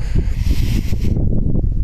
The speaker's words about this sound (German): Naja gut, hier am Waldrand, weißt du, ist ein bisschen windig, hört er ja. Hier, der Wind ist hier,